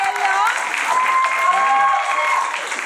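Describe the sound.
An audience claps steadily in a dense, continuous burst of applause, with some cheering voices rising through it for a few seconds.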